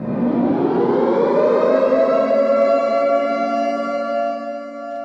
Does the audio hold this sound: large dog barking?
no